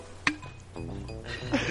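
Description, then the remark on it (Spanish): A single bright clink of glasses touching in a toast, sharp and brief, followed by a soft ringing tail over low room noise and faint murmuring voices. “Ese sonidito. Salud.”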